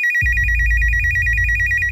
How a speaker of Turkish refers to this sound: Günün ilerleyen saatlerinde küçük Janelle'in kreşinden bir telefon geldi.